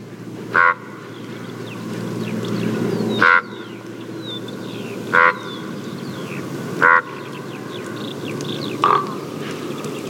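A common raven gives five loud, hoarse, honking croaks at uneven intervals, each short and harsh, over a steady low rumble of background noise.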